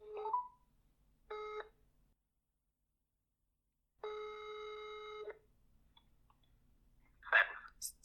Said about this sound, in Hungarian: Mit szólnál, ha felhívnám? Jó, jó, hívjuk fel. Várjál, megpróbáljuk. Old school lesz telefonon, tényleg.